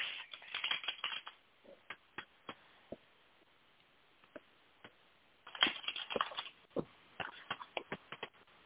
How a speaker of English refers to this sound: Let me shuffle my deck. We're shuffling our decks